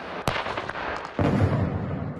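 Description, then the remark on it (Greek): A sharp report of weapons fire cracks out as soldiers of a regional troop grouping train with weapons, firing and armored vehicles in Belarus, followed by a second heavier boom around a second later that rumbles on with a low, roaring tail, amid a steady background of noise. “Εκπαιδεύονται στα όπλα στι βολέ στα δεθωρακισμένα, ώστε να αποτιμηθεί η ετοιμότητά του και το αξιόμαχο.”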